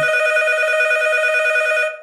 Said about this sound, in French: tu as raison, le téléphone sonne.